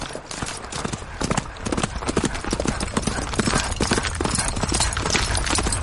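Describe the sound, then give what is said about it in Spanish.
Rapid, rhythmic hoofbeats of a horse ridden by a young knight, galloping at full speed through a forest at dawn. The hoofbeats are loud, with a steady driving pulse and a rushing, noisy background throughout. “Al amanecer, el joven caballero que contrató a los sicarios galopa por el bosque a toda velocidad.”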